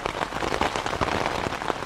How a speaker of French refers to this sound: Mais bientôt, c'est de nouveau la grêle qui se met à tomber.